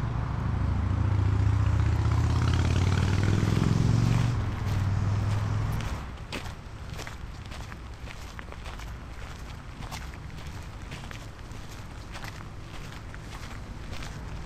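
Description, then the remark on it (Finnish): Footsteps climbing up Kellomäki hill, the highest point of the old town: a low rumbling drone fades over the first few seconds, then steady, crisp footfalls crunch along at a walking pace until the end, with no talking. “Kiivetäänpä tuonne Kellomäelle, että sieltä on hyvät näköalat ja katsellaanpa sieltä vähän alas.”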